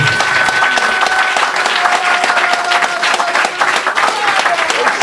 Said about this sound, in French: ça mérite un tonnerre d'applaudissements.